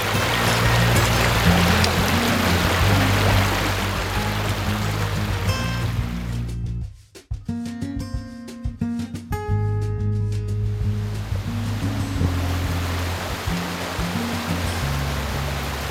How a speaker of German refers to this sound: Wir stehen nun vor einem der reißendsten Flüsse in Rheinland-Pfalz, der Mühlgraben im Nahetal. Den kannst du sogar stoppen. Ja, aufstauen.